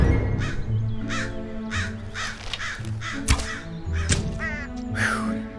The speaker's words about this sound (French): Après une bonne nuit de sommeil, la compagnie se réveilla au doux son des corneilles.